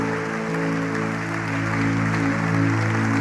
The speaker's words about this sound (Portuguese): Dê um aplauso ao Senhor nesta noite.